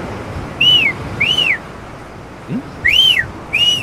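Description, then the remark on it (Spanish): Someone whistles an imitation of a seagull: four loud, arching cries in two pairs, each rising and falling, over a faint background hiss with no talking. “Es que no pueden faltar las gaviotas. ¿Qué es eso, güey? ¿Gaviota, no?”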